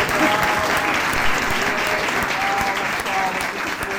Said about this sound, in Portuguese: Ó, vamos dar uma salva de palmas. Uma salva de palmas.